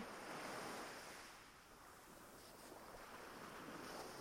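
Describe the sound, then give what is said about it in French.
Steady surf washes continuously onto a beach, a broad hissing roar with a slight swell and ebb in loudness, heard alone with no voices. “Puis maintenant que vous êtes sur cette plage, vous pouvez respirer pleinement l'odeur qui vous entoure là.”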